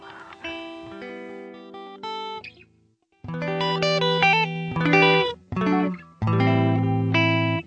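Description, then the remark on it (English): Short instrumental break music of bright, heavily processed synth or guitar chords in sustained bursts, broken by brief pauses, loud with no voices. “You're going to hear some music now.”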